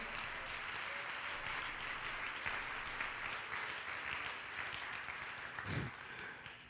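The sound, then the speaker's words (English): A crowd claps steadily, a dense wash of many hands slapping together without a clear beat, holding a fairly even loudness throughout with a slight swell near the end. “Oh, clap your hands if you want to be the nail.”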